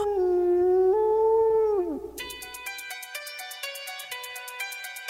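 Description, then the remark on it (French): A wolf lets out one long, loud, mournful howl that holds steady, then slides downward and fades after about two seconds, followed by a rapid train of bright, evenly pulsing tones. “Leurs longs hurlements nocturnes, comme de longues plaintes d'agonie, ne résonnent-ils pas comme des oraisons funèbres”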